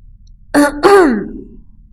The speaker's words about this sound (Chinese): 阿福清了清嗓子，停了一会儿，然后仿佛他正站在一座舞台上。